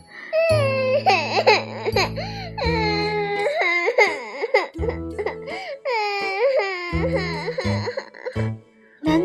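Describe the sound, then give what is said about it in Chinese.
A terrible crying in a foggy forest: a loud, anguished wailing cry rises and falls in pitch through repeated drawn-out bursts with short breaks, set over a low steady droning tone. “在雾蒙蒙的森林里，突然传出了一个可怕的 哭声。”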